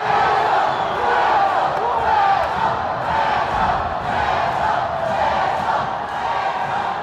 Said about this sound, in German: Und die ganze Arena schreit dann, Peso, Peso, also Pussy, Pussy.